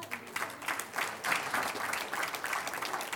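A church audience breaks into steady applause for a woman, many hands clapping together in a dense, continuous patter at moderate volume, sustained for a few seconds without any talking.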